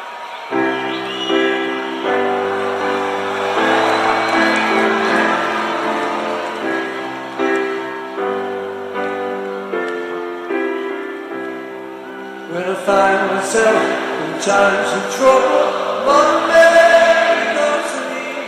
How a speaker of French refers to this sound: Tellement populaire que tout le public chante cette chanson. Elle est bien connue, vous la connaissez. Elle est d'aujourd'hui un petit peu d'hier déjà.